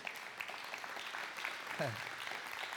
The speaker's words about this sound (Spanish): Un aplauso a Cristo Jesús.